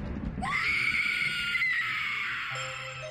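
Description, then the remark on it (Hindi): A woman lets out a long, high-pitched scream of fright on seeing lightning crack across the sky, sustained for about two seconds, loud, ending abruptly with a low rumble underneath. “उसके तक कहते ही पूरे आसमान में जोर जोर से बिजली कड़कने लगती है ये सब देखकर दिव्या की चीख निकल जाती है”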